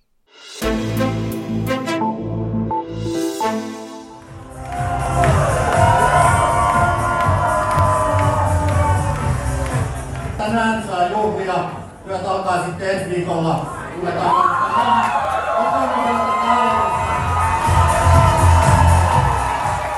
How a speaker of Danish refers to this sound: Her hører vi jubelen hos Finlands konservative parti, Samlingspartiet hedder det, søndag aften, da det stod klart, at de nu er det største parti i Finland.